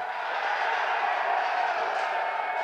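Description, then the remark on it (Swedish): A large crowd at a draft event cheers Eli Manning after a draft-pick trade between the San Diego Chargers and the New York Giants is announced from the stage, in a steady, unbroken roar, a dense wash of many voices holding at the same loud level throughout, with no single speaker standing out. “Inget mer Eli Sachs, utan nu hyllas han som hjälte med enkom glada tillrop.”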